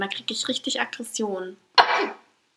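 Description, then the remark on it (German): A man speaks, pauses, then lets out a single sharp, stifled sneeze, a sudden burst of breathy noise that fades over about half a second. “Ich kann das ja normalerweise unterdrücken, aber gerade ging es nicht.”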